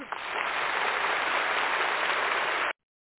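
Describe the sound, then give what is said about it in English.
A steady round of applause from a crowd welcoming a female vocal performer, dense and fairly loud, sustained for a few seconds before cutting off abruptly into silence. “Let's give her a round of applause.”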